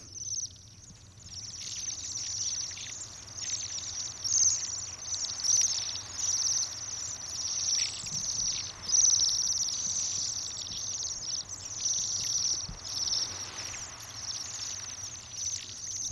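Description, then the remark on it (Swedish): A flock of Bohemian waxwings gives thin, high, ringing trills that overlap almost without pause, a shimmering, bell-like chorus over faint low background rumble, with no one talking. “Vackert litet kvittrande. Ja, de har sen silverklocka som de ringer, ringer i.”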